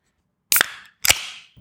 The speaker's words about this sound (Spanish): Bueno, bueno, yo me abro la cerveza.